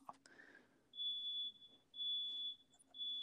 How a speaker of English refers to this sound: So everyone, um as long as it's a false alarm, we're good. I'm not even dealing with it.